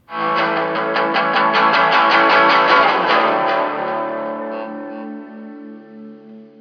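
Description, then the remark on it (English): A heavily distorted electric guitar power chord in drop D, the final chord of a song, chugged rapidly for a few seconds, then left to ring out and slowly fade, with a faint buzz of strings against frets. “A little bit of tiny little a tiny little bit of fret buzz there right at the end Something, again, you try to eliminate in a pro grade studio recording, but I feel really adds to the power of that moment where the string is actually buzzing”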